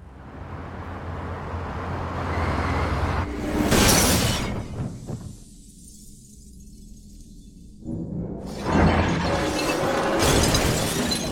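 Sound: car crash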